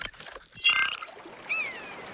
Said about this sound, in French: Euh, on est dans la nature, il y a une rivière, c'est très joli, mais on est où exactement C'est dans la vallée de l'Orbiel. Alors on est à côté de Carcassonne